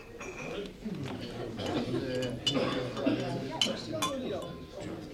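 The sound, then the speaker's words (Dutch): Several light, irregular clinks of glass and tableware as a glass of water is set down and passed along, with muffled voices murmuring underneath. “Mag ik een glas water?”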